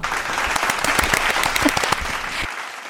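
Warm applause from a group welcoming a finance department teacher: a dense, steady patter of many hands clapping for about two and a half seconds before quickly dying away. No one speaks.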